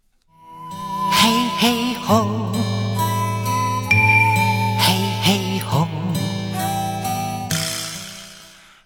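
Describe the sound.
A recorded enka-style song plays for several seconds, a sustained male vocal with vibrato over a full band, leading into a rhythmic chanted heave-ho style chorus.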